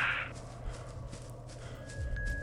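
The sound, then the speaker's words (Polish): Quick, steady footsteps of a running video game character, a rhythmic patter set against a low ambient hum, with a short bright chime near the start and a faint tone later. “Słyszycie, jak już właśnie wystartowaliśmy, biegniemy.”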